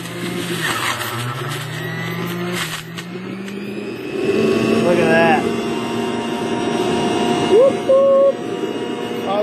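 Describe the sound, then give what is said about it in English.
A juicer motor grinds spinach that is being crammed down into it, in a steady mechanical whir, with the pitch and intensity rising midway as the greens are pressed through, running continuously for the whole stretch. “cram the spinach down in there. Oh yeah, messy. Just like this. Alright. And crank it down.”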